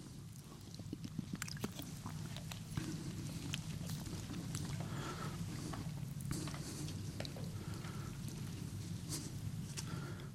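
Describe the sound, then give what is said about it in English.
Soft, scattered rustling of many Bible pages being turned by an audience looking up Luke chapter 14, overlapping flicks and crinkles continuing steadily over a low background hum, with no one speaking. “I can still hear pages turning, so I just want to make sure you have a chance to get there.”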